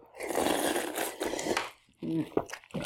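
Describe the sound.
A long, wet slurping sound made while eating, noisy and sustained for over a second, followed by a brief pause and a short voiced murmur of satisfaction.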